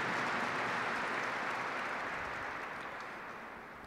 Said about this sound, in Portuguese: Uma grande salva de palmas ao Evangelho de Jesus, a palavra viva, presente em nosso meio.